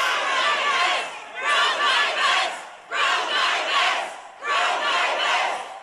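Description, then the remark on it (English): A large crowd at a vigil for a student who was shot shouts in unison in repeated surging bursts, roughly four loud chants with brief dips between them, sounding forceful. “This is at a vigil for a student that was shot. And this is the reaction.”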